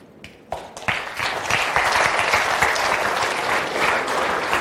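An audience bursts into applause, a few scattered claps quickly swelling into steady, dense clapping that stays loud and even throughout, with no voices over it.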